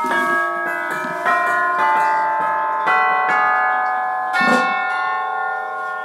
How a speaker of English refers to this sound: back here are the chimes from Dick Higgins, orchestral chimes